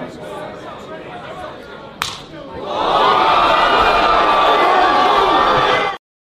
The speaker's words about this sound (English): You know what would have got got rid of this cold for you in a super hurry? Huh. A smack like this.